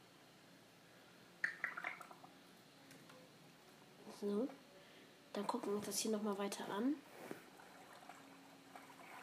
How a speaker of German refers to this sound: Man hört auf jeden Fall das Wasser. Diese Unterwasserhöhle scheint ganz schön groß zu sein.